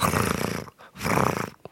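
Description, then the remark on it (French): A person imitates a cat's purr: two rough, rumbling, throaty bursts, each under a second, separated by a short pause, with a brief faint trailing sound at the end. “très joli ronronne.”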